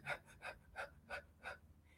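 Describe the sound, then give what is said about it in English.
A voice demonstrates labored breathing with a series of five sharp, gasping breaths in quick, fairly even succession, moderately loud, with no talking. “So you can cause yourself some pain just from holding your breath or having some labored breathing.”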